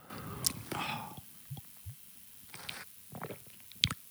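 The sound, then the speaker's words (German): Someone drinks Heineken 0.0 beer right up against the microphone, with wet sips, gulping swallows and soft mouth clicks spread across a few seconds, plus a couple of sharp clicks near the start and end. “Ich trinke nochmal ganz nah hier.”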